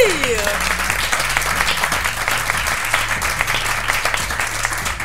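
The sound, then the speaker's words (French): An audience claps for itself for several seconds at the end of a live recording held as part of a day against violence against women: a room full of people clapping steadily, a dense wash of overlapping hand claps with a low musical tone humming underneath and a brief voice at the start. “Et merci à vous, public, on peut s'applaudir.”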